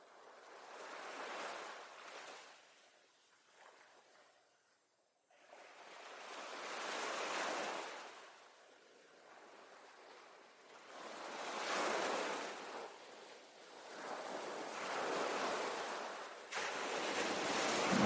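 Ocean waves roll in and break on the shore, each crash swelling into a broad hiss and fading, repeating about every four to five seconds. The surf is steady, with no voices.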